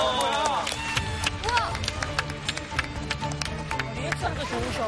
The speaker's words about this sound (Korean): 잘 맞춰. 박수!